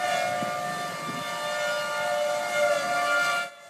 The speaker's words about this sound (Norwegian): Tornadoene, og sirenene som lyder når de er på vei, har vært en del av oklahomernes liv alltid.